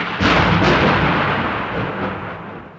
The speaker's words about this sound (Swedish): Det har ju brutit ut ett dramatiskt stormåskväder så här på kvällen.